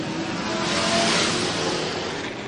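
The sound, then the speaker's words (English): Race cars roar past at speed, running nose to tail down the front straight, a loud continuous engine rush that swells toward the middle and fades slightly, with no voices over it. “down the front straight right to Underwoodski running nose to tail down the front straight.”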